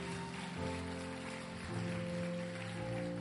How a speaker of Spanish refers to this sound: Si puedes celebrar eso, dale un fuerte aplauso al Señor.